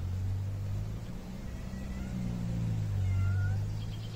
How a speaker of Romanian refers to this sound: Ce vrei, motanule? Ce te plângi? Auziți-o ce se plânge pe acolo. Plimbă și el prin grădină.